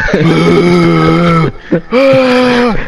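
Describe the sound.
A person voices a mock anguished scream imitating the Punisher: a long, strained, buzzy wail held for about a second and a half, a short gasp, then a second rising howl, loud and harmonically rich.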